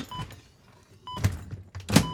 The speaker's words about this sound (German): So, noch die Tür zu machen.